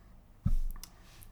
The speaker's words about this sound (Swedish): men han önskar på att den där klickande pennan som hörs i bakgrunden ska dö sitt sista extraliv snart. ja. Så jag upptäckte, också något klickande ljud.